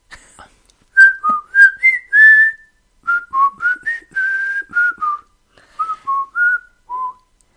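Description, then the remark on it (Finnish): A person whistles a bouncy pop song melody, clear pitched notes in three short phrases separated by brief pauses, with no talking. “Kyllä tässä kerkeisi vielä viheltää jonkun biisi.”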